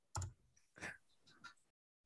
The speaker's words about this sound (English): What are you typing, man?